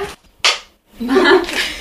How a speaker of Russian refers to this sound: Щелчок кинохлопушки.